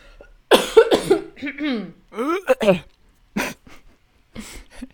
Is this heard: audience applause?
no